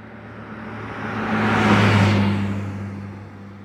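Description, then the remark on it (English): A truck's engine rumbles in, swells to a broad roar as it passes, then fades steadily away on a road in the Texas prairies, with no voices. “A few minutes later, I saw a passing truck pick her up.”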